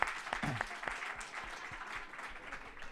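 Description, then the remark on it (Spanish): A crowd claps steadily for several seconds, a dense crackle of many hands with a few sharper claps standing out near the start, moderately loud. “Ajá, mire, otra aplaudiendo.”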